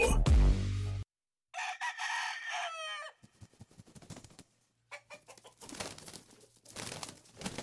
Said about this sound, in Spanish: Escúchelo. El gallo. Que pelea el gallo tan berraca, cuidado. pero ese gallo está como enfermo.